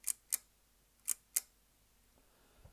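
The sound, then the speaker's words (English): The Gorfia leaf shutter of a Singlo camera clicks four times, crisp, in two quick pairs about a second apart, each a short bright snap against a quiet background. “Now, with regards to their use, um, you've got I mean this this Singlo has got a Gorfia um, shutter on it. You might be able to hear it right there.”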